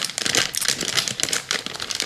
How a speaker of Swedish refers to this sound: Kan det vara en påse Polly?